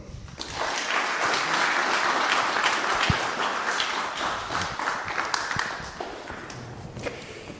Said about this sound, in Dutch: Dames en heren, we zijn met weinig, maar ik vraag uw aandacht en uw applaus. U moet hard klappen met, met z'n weinigen voor Frans van Houten.